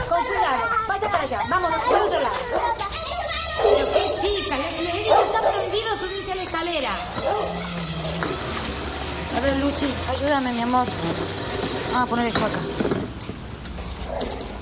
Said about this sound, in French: Plus personne dans la cour, et le chien qui continue à aboyer.